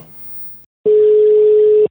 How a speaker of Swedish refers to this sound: Ja men vi testar att ringa han. Ja, ring upp. Jag testar att ringa. Får vi se om han svarar.